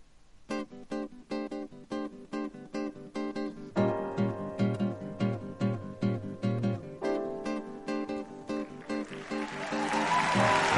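Rhythmic strummed guitar chords play for several seconds, then a crowd's applause swells up loudly beneath the music and grows toward the end.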